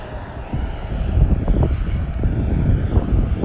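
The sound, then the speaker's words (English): A loud bus rolls past during an outdoor run, its deep engine rumble swelling within the first second and holding steady, with some wind buffeting the microphone and no one speaking. “So, man, these buses are freaking loud.”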